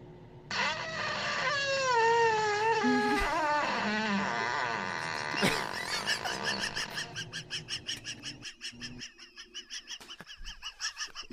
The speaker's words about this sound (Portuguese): É o peido de um Cervalita.